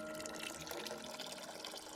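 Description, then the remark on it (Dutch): Ditch water pours steadily into a toilet cistern, a continuous splashing, gurgling stream with no pauses, moderately quiet, with no voices. “Stiekem gooiden ze het slootwater in de stortbak.”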